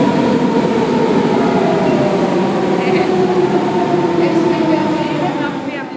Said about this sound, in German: Wir fahren jetzt mit der U-Bahn zur Agora.